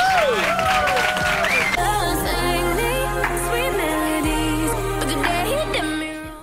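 An audience applauds and cheers steadily for several seconds to welcome Luján Argüelles, mixed with loud music carrying a deep sustained bass and a wavering melody, easing off slightly at the very end.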